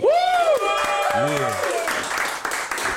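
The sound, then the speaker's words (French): An evening show audience breaks into applause for the guest artist, a steady wash of clapping carried under rising and falling whoops and cheering voices that fade as the clapping continues. “Bah, applaudissements.”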